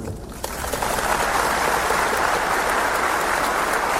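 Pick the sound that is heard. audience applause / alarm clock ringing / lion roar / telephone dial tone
audience applause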